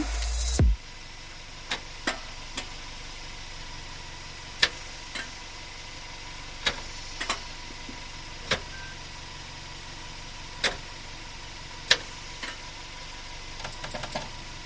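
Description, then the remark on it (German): An off-road car's drivetrain clunks and knocks repeatedly with four-wheel drive engaged as a test in light off-road terrain, sharp irregular thuds roughly every second or two over a steady low engine hum, no voices. “da äh, drohen dann Schäden deshalb haben wir das natürlich auch nicht gemacht, keine Sorge, aber man merkt auch schon, selbst wenn man jetzt im leichten Gelände irgendwie den mal testweise einlegt, was übrigens so klingt.”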